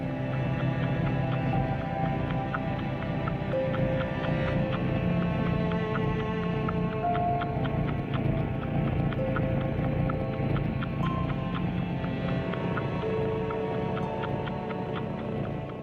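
Gentle instrumental music composed specially for cats by an American composer, with soft sustained tones over a steady, clip-clop-like ticking beat running underneath throughout, with no voices.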